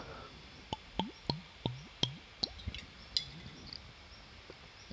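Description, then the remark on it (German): A run of about seven quick gulping sounds, someone sipping and swallowing water in a steady rhythm, then tapering off into a few fainter swallows and quiet. “Und ihr habt was von dem hörbaren Verzehr.”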